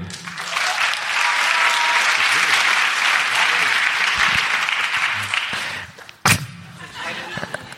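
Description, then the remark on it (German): A live crowd claps loudly and steadily for about six seconds to vote for one entry in a contest, then the applause fades out, broken by a single sharp thud near the end. “Jetzt euer Applaus für Steffens Freundin.”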